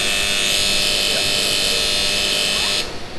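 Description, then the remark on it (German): A railway platform ZB9 departure signal, sounded whenever the ZB9 is operated at any track, gives a loud, steady electronic buzz, holding for about three seconds before cutting off abruptly over a low background rumble. “Ja, also das ist wirklich, äh, dieses, diesen Ton gibt es immer, wenn irgendwo halt in irgendeinem Gleis das ZB9 bedient wird.”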